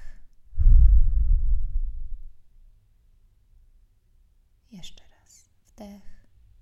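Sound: slow deep exhale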